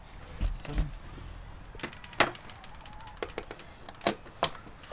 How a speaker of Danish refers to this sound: åbner døren.